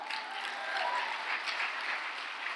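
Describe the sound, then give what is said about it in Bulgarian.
An audience applauding, a steady dense wash of many hands clapping at once, sustained at an even, moderate level throughout with no voices standing out. “О, хайде, ако ръкопляскаш, ръкопляска, като че това е истината за тебе.”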